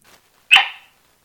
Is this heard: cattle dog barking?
yes